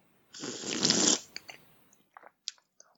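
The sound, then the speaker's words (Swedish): A person takes one loud, airy slurping sip of a drink lasting about a second, followed by a few small clicks and swallowing sounds in otherwise quiet surroundings. “Men du kan åtminstone nu höra när jag dricker av den.”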